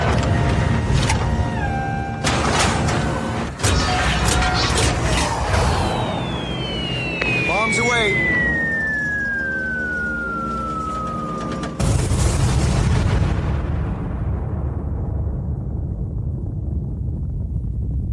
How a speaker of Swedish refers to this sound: Kan vi få höra eh, liksom bombjingeln här?